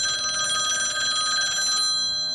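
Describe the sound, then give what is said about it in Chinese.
A home telephone bell rings late at night, at half past eleven, in one loud, continuous burst of rapid metallic trilling for almost two seconds, then cuts off, leaving a faint ringing tail. No one speaks. “着急的两人一直在家中等待消息，一直等到深夜的十一点半，家里的电话响了。”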